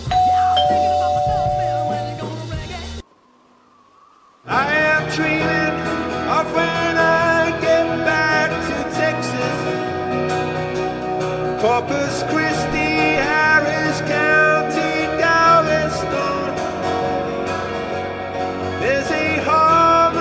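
A man sings a song live over full instrumental backing, loud and close, continuing steadily after a short near-silent break early on.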